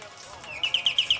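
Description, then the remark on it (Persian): A peacock call: a rising high tone followed by a quick run of about six sharp, shrill notes in a steady rhythm, fairly loud, with no talking. “اون تاووسه دیدمش من گوش بش بدم آقا تاووس”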